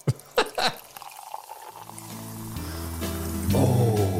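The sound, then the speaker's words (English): Sekt (sparkling wine) poured into a glass, a few clinks and splashes at first, then a steady rising gurgle as the glass fills, fairly loud with no talking. “Look, listen to that, eh? Yeah, that's that's that little bit of Sekt, isn't it?”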